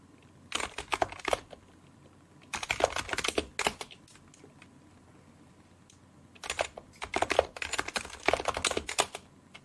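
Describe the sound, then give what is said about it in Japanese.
Rapid clicking of a computer keyboard in three bursts of fast typing separated by short pauses, crisp, with no voices; the typist has been drinking, cannot open their eyes, and finds the home position by touch. “目が開けられないし、手を完全にキーボードから離しちゃったから、どうだろう。戻れるかな、ホームポジションに。”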